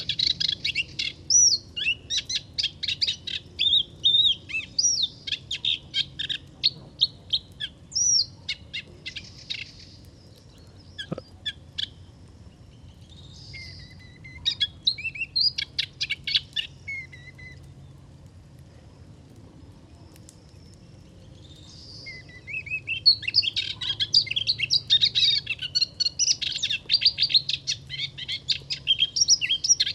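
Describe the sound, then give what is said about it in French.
A moustached warbler sings in rapid, rich phrases of chirps and trills, bursting out in several bouts with short pauses between, clear over a low background hum. “Elle a vraiment un joli petit chant, euh, avec souvent au début, voilà, cette note particulière qui rappelle le, le rossignol un peu, le début du rossignol.”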